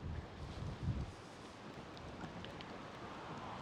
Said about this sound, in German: Es ist windig hier.